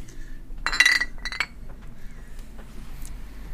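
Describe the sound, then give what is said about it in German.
A bright clink of beer glasses touching in a toast, one main ringing strike followed by a couple of lighter taps, with no talking. “wir sind jetzt gleich da bei einem Bierli, zum Wohl miteinander.”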